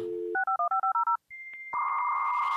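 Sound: dial-up modem dialing tones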